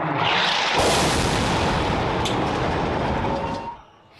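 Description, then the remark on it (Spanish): A powerful explosion in the parking lot of the Baptist Hospital in Gaza erupts as a loud, dense roar with deep rumbling, sustaining for several seconds before abruptly falling away into quiet. No voices are heard. “Este fue el momento de la explosión que sacudió el estacionamiento del Hospital Bautista de Gaza.”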